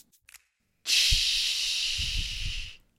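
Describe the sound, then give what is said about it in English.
A person imitates the air brake of a garbage truck picking up trash in an alleyway behind a house: a single sustained, breathy hiss lasting about two seconds, bright and steady, with faint low puffs underneath, after a few short breathy clicks. “That's my imitation of the breaky sound when they're picking up your trash in the uh, alleyway behind your house.”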